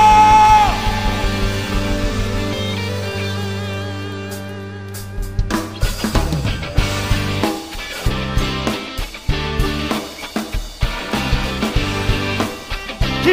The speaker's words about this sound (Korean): 다시 한번 우리가 드릴 수 있는 최고의 감사와 영광에 큰 박수 올려드리면서 하나님 찬양하며 나갑시다. 할렐루야! 여러분, 이게 우리가 드릴 수 있는 최선의 박수일까요? 다시 한번 할렐루야!